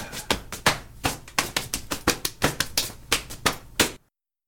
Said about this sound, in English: There is something in this body or mouth percussion that seems to instinctively speak to our ancestral selves. Here is modern body percussion, recorded at the WVBU studio in Lewisburg in early 2020.